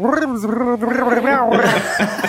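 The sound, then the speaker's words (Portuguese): A voice imitates the way the characters in the game Splatoon talk, as if speaking underwater: a bubbly gargling babble with wavering pitch that runs continuously for a couple of seconds. “É que eles falam meio que como se estivesse falando debaixo d'água, né?”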